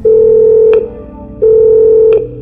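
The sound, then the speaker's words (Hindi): A telephone rings in a corridor on the sixth floor in two steady electronic bursts, each about three-quarters of a second long with a short pause between, loud, with a faint background hum and no talking. “corridor में बजता हुआ फोन उठाया”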